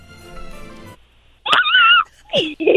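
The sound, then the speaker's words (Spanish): An adult speaks briefly, then a child's voice gives two short, high-pitched, squeaky meows, imitating a tiny cat, loudly. “Ahora puedes hacer el ruido de un gato más chiquitito.”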